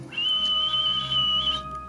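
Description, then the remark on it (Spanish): A person whistles one long, steady, high-pitched note for about a second and a half, imitating a whistled call used to find one another. It is clear, with no talking over it. “Entonces, tienen una, un llamado para buscarse. Era un silbido.”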